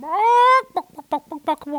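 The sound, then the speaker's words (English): A chicken from a backyard flock lets out a drawn-out, rising squawk, then a quick run of five or six short, choppy clucks, fairly loud with no talking. “I gotta ask you a question, Jeb, about about this flock of chickens you keep in your backyard.”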